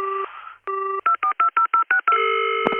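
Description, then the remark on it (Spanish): Telephone dialing tones as a phone call is placed: a steady dual tone, then a rapid run of short, evenly spaced beeps at varying pitches, ending in a longer sustained tone. Loud and clear, with no voices. “¿Qué te parece si ahora cortamos y ya directamente la llama tu personaje sorpresa a Gatúbela?”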